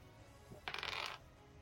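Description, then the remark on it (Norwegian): A quick clattering rattle of dice, a ten-sided and a four-sided die rolled for damage, rolling across a tabletop, a bright burst of small hard knocks lasting about half a second, with no voices. “Eh, da vil jeg at du skal rulle 1 D10 pluss 1 D4 skade.”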